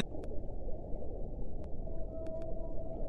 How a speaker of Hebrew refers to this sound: קולות של under water, כן, כן, מתחת למים, זה משהו מרגיע יחסית, לא? כן.